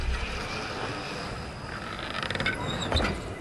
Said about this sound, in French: Pour garder la chaleur, pas besoin de penser à fermer la porte, elle le fait toute seule